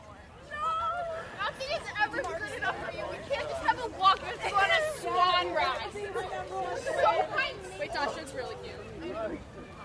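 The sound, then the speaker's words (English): A crowd of Methodists: many overlapping voices chatter at once in a steady, busy babble, with no single speaker standing out, holding at a moderate level for the whole stretch. “And the crowd of Methodists part.”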